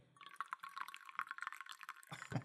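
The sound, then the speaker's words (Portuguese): Fresh coffee (Café da Vero) being poured in a steady, bubbling stream for about two seconds, fairly loud and trickling, ending with a short, lower-pitched clunk. No one speaks. “Adoro quando o compilado começa com barulho, barulhinho de café.”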